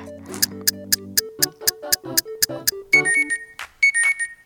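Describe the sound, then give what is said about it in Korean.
An alarm clock goes off: a quick, steady run of sharp clicking ticks gives way to a bright electronic beeping melody, with no one talking. “아우, 알람 다시 맞춰놔야지.”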